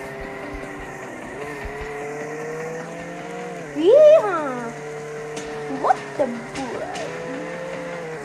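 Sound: car driving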